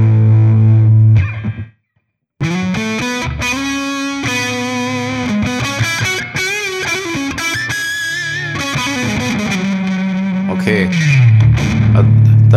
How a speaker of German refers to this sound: hören wir ganz klar, nein, das ist kein Verzerrer, das ist ein Overdrive, der in erster Linie dazu angedacht ist, einen echten Amp anzublasen. Oder? Weil jetzt das als alleinige Zerre, damit wäre ich, glaube ich, nicht glücklich.